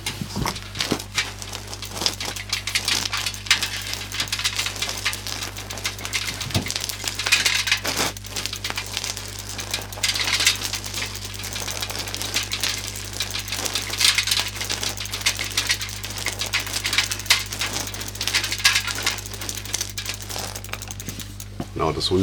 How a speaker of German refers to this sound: Also ein Fahrrad über die Straße schieben.